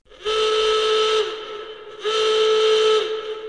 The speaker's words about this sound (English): What's that? I hear you ask. Uh, no, it's not an email klaxon. It is a klaxon for a new feature